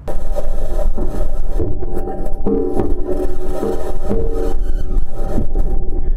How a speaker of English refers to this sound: This is the sound of the rover driving on Mars.